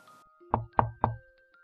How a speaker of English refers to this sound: The witch wolf went straight to the cottage under the big oak tree. He knocked on the door